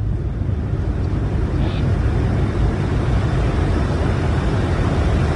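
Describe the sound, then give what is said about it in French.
A steady, heavy roar of jet engines heard from inside an aircraft cabin as the pilot lights the afterburners to pass Mach 1, deep and rumbling with a hiss on top, holding constant and loud throughout with no voices. “Voilà, le pilote vient d'allumer la post-combustion.”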